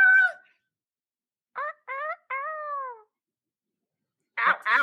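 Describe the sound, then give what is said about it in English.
A person's voice mimics a rooster's crow, rising in three or four short, strained bursts followed by a longer falling note, with a brief vocal sound before and a loud breathy noise after. “what does a rooster say?”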